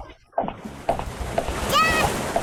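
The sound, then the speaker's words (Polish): A video game water splash effect: steady sloshing, splattering noise with soft bursts recurring about every half second, plus a brief warbling tone partway through, moderately loud. The water takes 20 HP. “Ta woda? Tam strzelił, ta woda zabiera 20 HP, jak pamiętam.”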